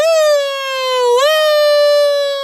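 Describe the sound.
A single voice holds a high, piercing wail that briefly dips and rises again, mimicking the siren of a police car, ambulance and fire engine. Loud, it sustains for a couple of seconds with no other sounds.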